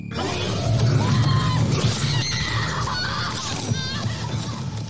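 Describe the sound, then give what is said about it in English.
A loud, chaotic burst of overlapping high-pitched screams and shrieks layered over a dense, rumbling din, sustained for about five seconds without letup. “But most of all, screams.”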